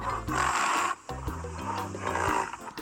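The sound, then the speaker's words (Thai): A rhinoceros vocalizes loudly, a deep, rough, groaning roar in two long bursts separated by a brief pause, with no voices present. “หน้าหน้าสัตว์สารพัดเสียงวันนี้เป็นเรื่องของแรดค่ะ”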